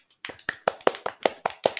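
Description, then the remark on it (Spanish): Hands clap in a quick, steady rhythm, about nine sharp, bright claps in under two seconds, with no talking. “Así que un aplauso para ti.”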